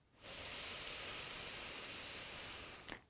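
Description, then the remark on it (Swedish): A single long, deep inhale lasting a couple of seconds, a steady airy rush of breath drawn in during a guided breathing exercise, ending with a small click. No one speaks. “En gång till, andas in.”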